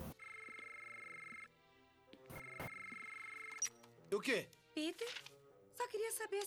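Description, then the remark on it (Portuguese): A landline telephone rings twice, each ring a long, steady electronic trill with a short pause between them; afterward voices speak briefly over some background noise. “Ah, isso é um telefone fixo?”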